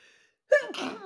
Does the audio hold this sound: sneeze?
yes